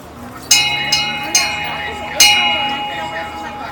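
A bell is struck four times at an uneven pace, each clang bright and metallic, its ringing tones overlapping and lingering steadily between strikes over a low background murmur.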